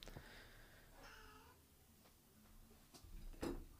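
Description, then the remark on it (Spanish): A female cat meows twice, the second cry longer and drawn out, followed by a couple of faint knocks or rustles. “Saluden a mi gata.”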